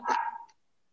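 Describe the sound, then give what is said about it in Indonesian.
A pet dog gives a single sharp, clear bark, with a brief trailing yelp before it cuts to silence. No one speaks. “secara basic ini suara anjing gue kedengeran nggak dengar ya bocor ya ya udahlah nggak apa-apa ya”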